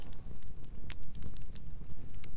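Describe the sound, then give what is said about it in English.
A fire crackles steadily with sharp, irregular pops and snaps over a low, breathy rumble like wind. No voices, just the continuous sound of burning. “you listen to the crackling of the fire of the anomie patrol”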